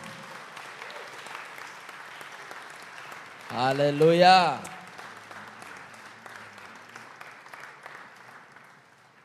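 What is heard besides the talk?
audience clapping hands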